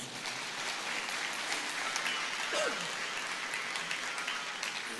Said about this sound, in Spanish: Dale un aplauso de gloria a nuestro Dios.